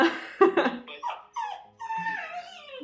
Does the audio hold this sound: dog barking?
yes